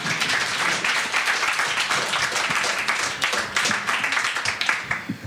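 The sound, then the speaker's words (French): Sustained applause from a crowd, dense overlapping claps filling the whole stretch at a steady, fairly loud level with no voices standing out. “Vous pouvez vous applaudir, hein”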